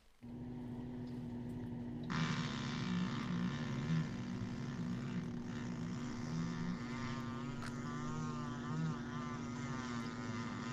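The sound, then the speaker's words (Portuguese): A long, continuous fart, the fifth one from a group from Nova Prata, with a low, buzzing, wavering tone. It turns louder and raspier after a couple of seconds and keeps going steadily for about ten seconds, with no talking. “Peido número 5 da turma de Nova Prata ainda.”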